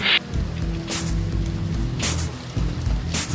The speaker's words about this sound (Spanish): La lluvia fue tan intensa que el piloto del DC-6 ni siquiera podía encontrar la pista